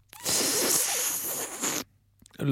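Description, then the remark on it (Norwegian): A harsh, hissing suck of air drawn through a terry-cloth sweatband held between the lips and front teeth, lasting about a second and a half, fairly loud, followed by a brief pause and a short breathy sound. “Eh, hvis du da tar av dette pannebåndet etter du har spilt, og så eh, legger du det inn mellom leppene og fortennene dine, og så suger du innover”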